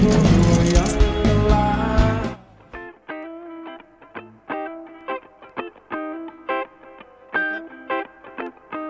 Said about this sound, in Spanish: Dos tipos de cambio, dos tipos de cambio, dos tipos de cambio. Sigue el eco, ¿eh? Qué notable. Está, hay, algo acá en la, la acústica que, está funcionando.